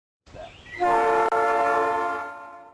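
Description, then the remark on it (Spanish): A loud, sustained train horn blares with a rich chord of tones, preceded by a short rising rumble of an approaching train, then slowly fading. “Primero, lo que escuchamos fuerte, que es esa bocina que decimos chuchu, chuchu.”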